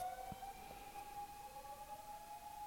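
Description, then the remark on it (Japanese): An ambulance siren passing outside wails steadily, a sustained tone holding over faint background rumble, with no voices. “ピーポーがすごいまたいい感じで話していたのに僕ピーポーが来るとですねそれこそ意識がピーポーの方に行ってしまってですねああまだ来るピーポー”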